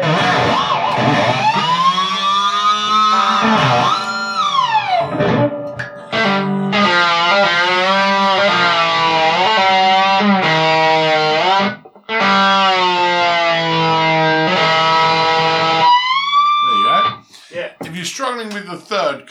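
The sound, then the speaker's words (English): Distorted electric guitar plays a run of ringing harmonics at the lower frets, high glassy tones bent with the tremolo arm so they waver in pitch like a siren, in several loud phrases separated by brief gaps. “harmonics tend to become slightly more elusive as you get to the lower frets.”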